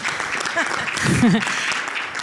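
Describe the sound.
An audience applauds steadily for a couple of seconds, a dense crackle of many hands clapping, with a brief voice rising over the clapping midway.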